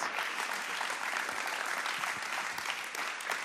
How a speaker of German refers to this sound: Und lasst uns als Gemeinde ihn wirklich willkommen heißen mit einem großen Applaus der Wertschätzung und der Freude zu dem, was du heute gibst, was Gott hineingelegt hat.